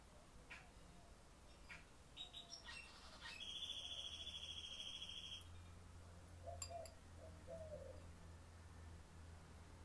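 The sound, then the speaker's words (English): Several birds call outdoors in the garden of a house: short chirps, a sustained high whistle-like trill, then soft low dove-like coos, all over a steady low ambient rumble with no talking. “Same as right now that I am in the garden of my house and listening to all the birds, the wind, the quietness.”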